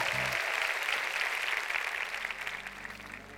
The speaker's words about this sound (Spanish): Un aplauso para ellos.